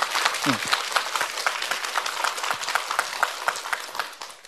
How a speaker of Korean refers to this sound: 박수.